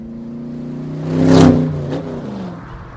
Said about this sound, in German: Das erste Auto, das in Ursula Meyers Spielfilm Home über die Autobahn fährt, ist blau.